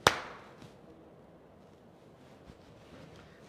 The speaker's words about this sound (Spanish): Vamos a ver, espérense un minuto. Este es el sonido de las dos palmas.